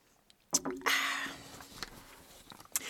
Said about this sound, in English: I'm gonna take a sip, and we're gonna talk about some more cool stuff. Hang on.